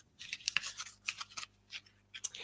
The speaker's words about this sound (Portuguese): Eu vou colocar o baralho dentro do, da caixa.